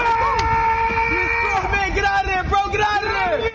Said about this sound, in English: Bystanders on a New York street cheer on the guy as cops try to subdue him. Hurry up! The two officers are struggling. He's not going quietly, and onlookers urge him to resist.